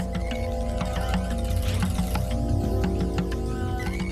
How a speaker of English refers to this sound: I am in the kitchen. I am at the stove top. I am chopping onions. I am frying onions.